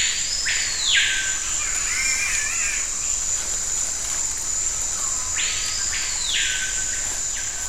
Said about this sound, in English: If you've ever watched one of those TV nature documentaries, you might imagine that the Amazon rainforest sounds something like this.